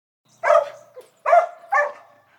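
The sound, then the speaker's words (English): A sheepdog barks three times in sharp, loud bursts, the first two spaced apart and the third following quickly, with brief silence between. The barks sound clear, with no other noise. “A sheepdog. That might sound like just a regular dog to you, but I'll explain why it's special”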